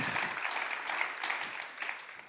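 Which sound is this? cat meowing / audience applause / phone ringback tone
audience applause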